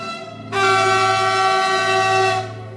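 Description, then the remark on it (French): A loud, sustained whistle from a Swiss train arriving at a French station blares for about two seconds over a low rumbling engine hum, its harmonic tone steady before cutting off, with no voices present. “Le train siffle à son arrivée et ça n'a rien de banal.”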